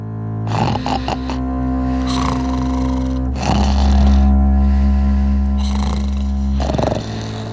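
snoring

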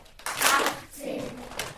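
children clapping

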